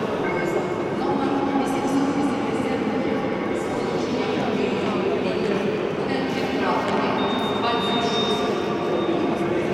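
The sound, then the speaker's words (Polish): Busy railway station ambience at Kyiv Pasazhyrskyi station in Kyiv, Ukraine: a steady wash of crowd murmur and rumbling train noise, with faint clattering and a thin high tone briefly sounding partway through. “Zanim wróciliśmy do Polski, udaliśmy się jeszcze na dworzec Kijów Pasażerski, obsługujący rocznie ponad 6 milionów pasażerów.”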